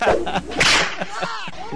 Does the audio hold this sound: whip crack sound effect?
yes